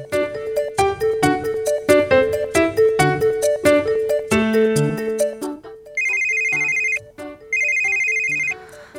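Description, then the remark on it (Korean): A loud phone ringtone for an incoming call plays a bright melody of quick electronic notes, then gives way to two sustained electronic buzzing bursts, with no voices. “아, 누가 아침부터 전화라고 그러냐, 예의 없이.”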